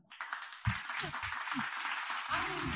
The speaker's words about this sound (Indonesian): Yeay, mana sih tepuk tangannya? Nggak asik banget